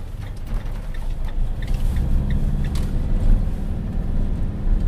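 A heavy truck's engine rumbles steadily, with intermittent mechanical clanks and rattles over the low drone, as the driver readies the truck in the courtyard of a zoo's operations building, hitches the trailer and drives off.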